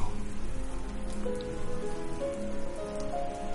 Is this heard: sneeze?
no